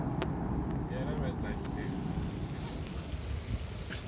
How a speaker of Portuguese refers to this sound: Esse barulho é o barulho da água que sai do chão aqui numa fonte que fica na Mandela Square, no bairro de Sandton, aqui em Joanesburgo.